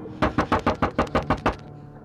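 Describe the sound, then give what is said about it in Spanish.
A rapid run of about nine hollow knocks from something striking the roof of a car, evenly spaced, each thump sharp and loud, coming faster and louder before the sound stops abruptly. “De pronto se empezaron a escuchar golpes sobre sus cabezas Los golpes que parecían provenir de algo que golpeaba la parte de arriba del coche eran cada vez más rápidos y más fuertes.”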